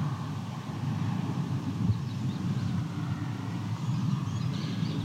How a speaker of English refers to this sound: Not too far from Highway 6 here, so there's a bit of traffic noise.